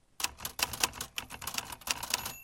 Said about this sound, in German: die Tasten einer alten Schreibmaschine wie dieser Olivetti aus den 1950er Jahren mussten mit Schwung und Kraftaufwand betätigt werden